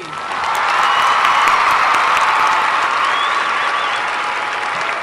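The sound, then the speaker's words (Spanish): A crowd bursts into sustained applause for a person being introduced, dense clapping swelling within the first second and holding steady for several seconds before easing slightly, with faint cheers mixed in. “pero igual la vamos a presentar. Un aplauso”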